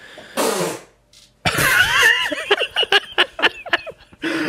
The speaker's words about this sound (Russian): будь здорова. А, будь здорова.